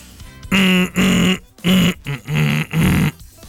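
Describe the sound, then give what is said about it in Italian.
A voice hums a song with the mouth closed in a mumbled style, five muffled, nasal phrases of a few notes each, fairly loud, with brief pauses between them and no words. “la sua interpretazione nel Mapalico lo chiamano per i paesi anche però per fare le solite canzoni a bocca chiusa, mugugnata,”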